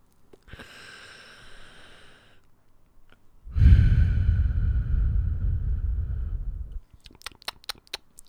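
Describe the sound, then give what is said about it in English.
A drag on a cigarette: a soft, breathy inhale, a brief pause, then a long, louder exhale with a rough rush of air, followed by a few faint clicks. “Right then, for all my non smokers, you ain't going to have a clue what that period of time was there.”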